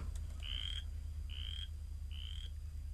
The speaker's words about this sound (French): Je viens de tomber sur une vidéo YouTube là, de, de ce que ça fait comme bruit une renette faux grillon